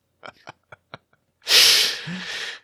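A few quick, sharp intakes of breath build up before one loud, explosive sneeze bursts out close by, trailing off in a breathy hiss.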